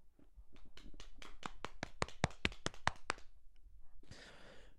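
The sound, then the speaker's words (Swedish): A brief round of hand clapping, a steady series of about fifteen sharp claps lasting roughly three seconds, swelling slightly in the middle, then a breathy sigh. “En liten ja. applåd.”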